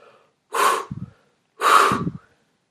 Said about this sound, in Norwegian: Og jeg, jeg som hadde vært så redd for den lille skapningen, jeg pustet tungt